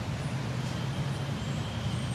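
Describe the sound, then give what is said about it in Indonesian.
A steady, low engine rumble from a road traffic jam hums throughout, a constant idling drone of cars and buses with faint higher hiss, no speech, moderately loud and unbroken. “Ya Allah, macet banget nih.”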